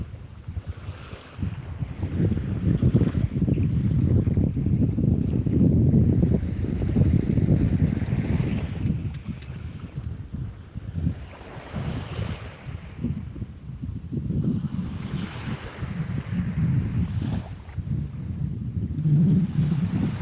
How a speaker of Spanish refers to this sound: Escucha ese vaivén de las olas